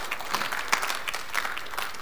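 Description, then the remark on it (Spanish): A crowd claps steadily to welcome a guest, with dense, continuous applause filling the whole stretch, even in loudness, with no voices standing out. “Su familia aquí de Elisa lo recibe a usted con un aplauso bien fuerte”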